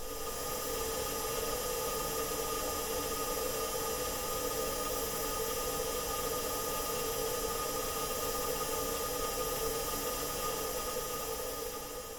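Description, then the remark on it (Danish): The fuel pump of a Mars rover, recorded in space, drones on in a steady, unbroken mechanical whir, with a dense hiss and faint tonal humming layered through it, holding the same level throughout with no voices. “en brændstofpumpe, der står og, og larmer lidt i baggrunden her”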